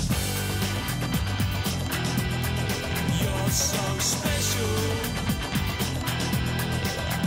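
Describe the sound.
A 1991 indie dance-pop song, heavily played on radio in early 1991, plays loud and continuous, with a steady driving beat, thick bass and a sung vocal line over the full band throughout.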